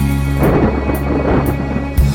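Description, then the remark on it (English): A loud thunderstorm: deep rolling thunder rumbles continuously over a steady wash of heavy rain, with no voices, and a sharper crack near the end. “We hit a storm, our sails were torn the day I went to sea.”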